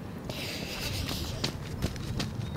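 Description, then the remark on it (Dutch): Steady running footsteps thud in a regular rhythm over a constant rush of wind and outdoor noise, during a lunchtime training run. “We, gaan, eh, we zijn aan het lopen op de site van Taxi tijdens de middagpauze.”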